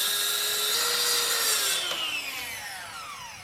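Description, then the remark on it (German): A circular saw whines steadily as it cuts through wood for parts of a new sloped wall at a bouldering hall under construction, its high pitch shifting and slowly winding down toward the end of the cut. “werfen die Kreissäge nochmal an”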